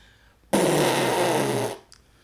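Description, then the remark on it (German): A voice imitates fuzz guitar distortion, an extreme kind of distortion effect, with one loud, raspy, buzzing drone held for just over a second before it trails off, followed by a faint short click. “Um das vielleicht nochmal lautmalerisch äh, zu erklären, was Fass ist.”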